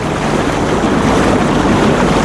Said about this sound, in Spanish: Mira cómo suena el río Ebro.